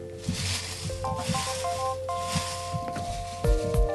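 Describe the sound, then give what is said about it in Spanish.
Crinkly rustling of papers being handled and shuffled while drawing a giveaway winner, in irregular bursts that grow louder near the end, with a faint steady hum underneath and no talking. “Dios mío, qué ruido hacen los papeles.”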